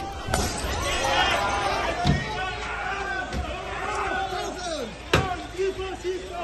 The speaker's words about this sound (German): Die Stimmung ist jetzt aufgeheizt. Die Polizei sammelt sich in Reihen und Trupps. Die großen Wasserwerfer bewegen sich. Und auf der anderen Seite, da werden die Sprechchöre lauter, aggressiver.